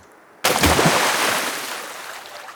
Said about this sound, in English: a big beaver slapped his tail on the water. A warning we were too close to his cozy home.